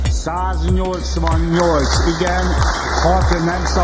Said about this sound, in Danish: det, det er lyden af klapsalver i det ungarske parlament, som i går stemte for at ratificere et svensk NATO-medlemskab.